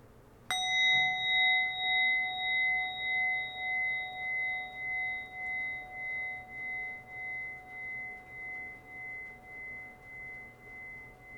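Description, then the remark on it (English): A single meditation bell is struck once to close a meditation. Its clear ringing tone shimmers with a slow pulsing beat as it gradually fades over several seconds, heard alone without any talking. “And then join me in closing our meditation by breathing in three deep breaths to the sound of the bell.”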